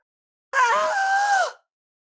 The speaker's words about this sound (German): schreit ah!